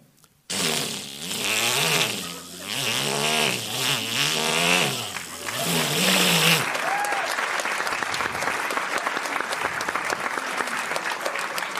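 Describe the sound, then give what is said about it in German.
A person imitates a chainsaw with a loud, buzzing voice that revs up and down in pitch for several seconds, then stops abruptly as steady applause takes over. “Ich kann eine Kettensäge nachmachen. Ich mache es mal vor.”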